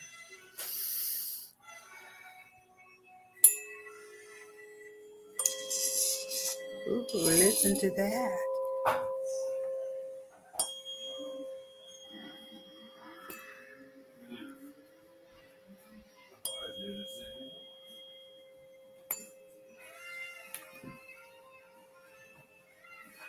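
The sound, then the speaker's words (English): Two tuning forks are struck at the same time, a few times, to clear energy, each strike leaving pure, steady tones that ring on and slowly fade. A brief spoken remark and some breathy rustling come through between strikes. “So these are tuning forks. I have two of them. I actually do both of them at the same time.”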